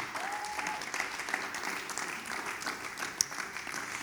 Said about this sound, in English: Let's give him a hand clap and appreciate him.